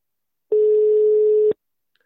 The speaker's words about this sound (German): Äh, das Telefon schellt. Ich hoffe, die Nummer ist noch die richtige. Hörst du es schellen? Ja. Sehr gut. Mal schauen, ob er abnimmt.